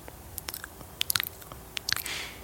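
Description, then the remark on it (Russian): Crunchy chewing of a person eating, picked up by microphones, with a string of sharp, irregular bites and crackles, then a brief softer rustle near the end. No one speaks. “сказала, что когда ты слышишь мое чавканье, которое да. ловит микрофоны, да.”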